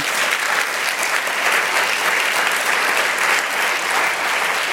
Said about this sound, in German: Ähm, das habe ich jetzt wirklich noch nie erlebt. Jetzt haben wir gerade Nachrichten gehört und es hat einen spontanen Applaus hier im Saal gegeben, wo wir nämlich über das Thema Billett für Bändchen gehört haben,